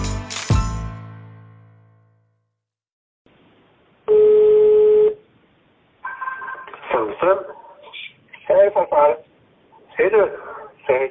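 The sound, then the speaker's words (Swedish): A sharp clunk, a brief pause, then a single steady telephone ring tone lasting about a second as a phone rings in an older man's home, followed by voices talking in a thin, phone-like quality. “ringer nu”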